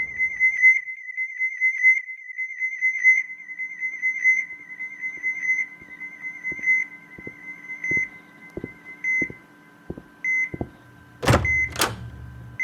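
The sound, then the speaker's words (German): Persistent electronic beeping: a high-pitched tone pulsing in a fast, steady rhythm for about ten seconds, with soft low thumps beneath, ending in two loud, sharp bursts of noise. “Dieses Piepsen treibt mich noch zum Wahnsinn.”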